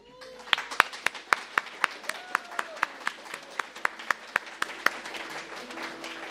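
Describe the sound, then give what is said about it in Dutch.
An audience applauds a group of Sunday school children, with sharp claps landing in a steady, even rhythm over a softer wash of clapping, while faint voices murmur underneath throughout. “Ik vind dat ze een applaus verdienen.”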